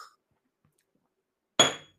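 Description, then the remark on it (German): After a stretch of quiet, a single sharp glassy clink rings out as a shot of espresso is poured, its bright tone lingering briefly before fading. No voices are heard. “Ich muss gerade nochmal einen Schuss Espresso, warte mal ganz kurz.”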